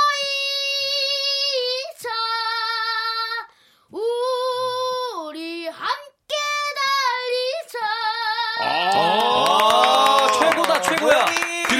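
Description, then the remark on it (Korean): A young singer, whose voice has not yet broken, sings long held notes in a clear solo voice, then a burst of loud applause with cheering erupts over the final notes and fills the last few seconds as a standing ovation. “기립박수 나왔어요, 지금.”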